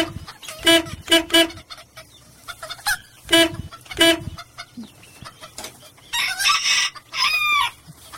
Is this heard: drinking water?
no